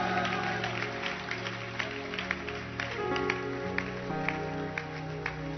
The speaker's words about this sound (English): Keep clapping for her.